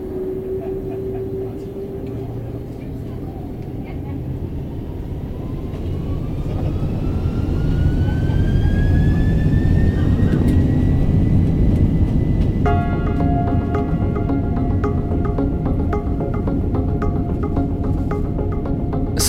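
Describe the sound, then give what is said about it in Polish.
A British Airways jet airliner, flight 149, takes off from Heathrow, its engine roar building steadily into a loud, sustained rumble with rising whine tones, continuous with no voices. “Samolot linii British Airways, lot 149, wzbił się w powietrze.”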